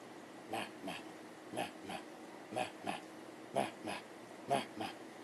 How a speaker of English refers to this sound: having to pitch his voice high above the chanting Shih Tzu